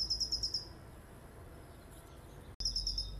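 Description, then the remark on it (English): Birds chirp outdoors in Southern California in quick, repeated high bursts at the start and again near the end, with a soft, steady outdoor hum filling the quieter middle. No one speaks. “Hello there from me and from the birds in Southern California.”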